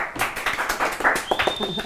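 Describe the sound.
A short burst of real, not artificial, hand clapping on a show, welcoming a presenter being introduced, quick irregular claps from a few people, with voices and cheering mixed in and a thin high whistle-like tone rising near the end.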